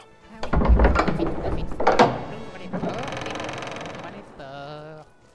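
Two heavy, booming thuds are followed by a long grinding rumble and a drawn-out groaning creak as massive doors to a king's gigantic hall are ordered open and slowly swing open. The sound is loud.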